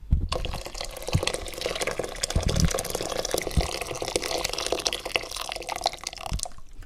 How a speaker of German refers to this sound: Zuerst kommt jetzt natürlich das Wasser in den unteren Topf rein.